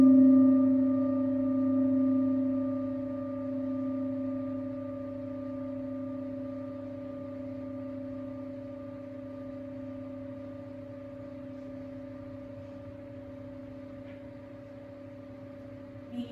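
A singing rin bowl rings out with a steady, shimmering tone whose layered overtones hum together, slowly fading over many seconds with no voices, played during a lying-down yoga meditation for relaxation.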